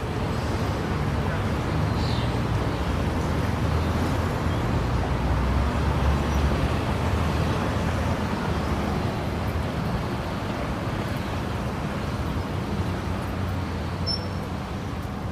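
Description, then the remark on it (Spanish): A steady, dense rumble of city traffic in the afternoon, with cars passing in a continuous low roar that holds at an even, moderately loud level throughout, with no single vehicle standing out. “Los autos circulan con un apacible flujo como si una música celestial los guiara.”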